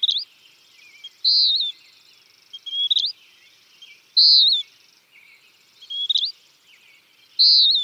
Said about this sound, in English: And the western wood pewee.